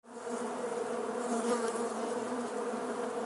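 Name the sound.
bees buzzing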